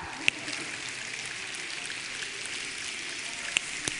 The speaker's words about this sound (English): I want you to snap your fingers exactly 50 times or count backwards from 100 by 7 like this 193, go.